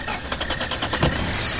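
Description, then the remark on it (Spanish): A car engine cranks with a quick, even chugging rhythm for about a second, then catches with a louder burst and settles into a running hum with a faint high whine, as a woman tries to start her car while a man checks the engine. “Después Cacho está mirando el motor del coche de Irene mientras Daniel observa desde fuera. A ver, Irene, prueba.”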